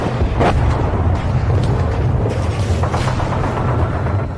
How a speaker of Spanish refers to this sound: Sí, hombre, encima bombardeo. no tenéis otro momento? Hasta los cojones me tienen con tanto disparo y tanta bombita.